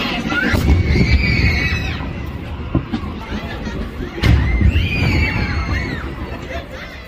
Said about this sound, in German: Um halb elf geht es dann los. Beim ersten Kanonenschuss sind die Kinder ganz aufgeregt. Sie schreien, kreischen und freuen sich.